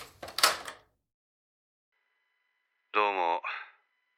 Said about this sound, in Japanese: 下妻は自身の研究室の扉を開いた。中に入った彼は即座に鍵をかけた